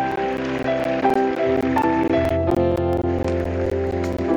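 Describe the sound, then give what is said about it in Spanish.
A church audience applauds for God on the first Sunday of Advent, a dense, continuous patter of many hands clapping at once, with sustained musical tones ringing underneath throughout. “Escucha ese aplauso, aplausos para Dios.”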